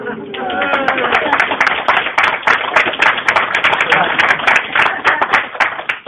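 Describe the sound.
A crowd applauds steadily, many hands clapping in a dense, continuous patter that holds at an even loud level throughout, with some voices murmuring and a few cheers underneath.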